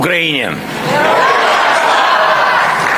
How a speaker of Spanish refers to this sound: Modo de vida europeo que es, dice, su luz al final del túnel durante esta guerra y que ha contrapuesto al modelo ruso autoritario, provocando oleadas de aplausos entre los eurodiputados.